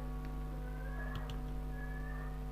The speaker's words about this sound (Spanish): es el gato que está haciendo el lío acá